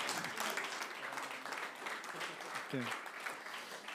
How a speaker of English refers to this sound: You give a round of applause to these guys. Say thank you very much. Thank you. Well done.